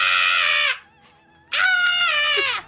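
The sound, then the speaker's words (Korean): Two loud, drawn-out harsh caws separated by a short pause, a voice imitating a crow cawing. “아! 하며 까마귀가 날아와서요 아!”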